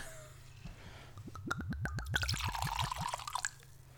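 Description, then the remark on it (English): Gin, a small-batch handcrafted 95-proof gin from a new bottle, glugs from the bottle into a glass in a quick run of rhythmic gurgles, then pours more smoothly with a rising splash before stopping. Clear, with no talking. “Good pour.”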